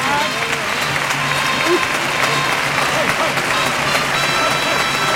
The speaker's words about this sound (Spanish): Bueno, pues gran ovación para la, cuadrilla. Claro que sí. muy bueno, muy bien.